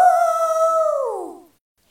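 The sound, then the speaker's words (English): A single drawn-out howl from the Canterville ghost, Sir Simon, as he flees down a corridor after smashing a bottle of oil on the floor. The howl is loud, holding a steady wavering pitch for about a second before sliding downward and fading out. No voices. “Then he smashed the bottle of oil onto the floor and fled down the corridor, howling.”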